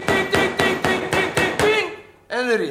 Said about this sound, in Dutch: Nog een keer, kijk. Hamer, spijker, kop boven, punt beneden, stukje hout en...